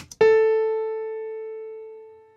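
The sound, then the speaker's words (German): A single piano note struck once to demonstrate a tone with overtones, ringing out with a clear fundamental and a stack of bright overtones, slowly decaying over a couple of seconds, heard alone with no talking. “Und ihr werdet relativ eindeutig, auch wenn ihr kein geschultes gehört, hören, das ist jetzt ein Klavier in dem Fall.”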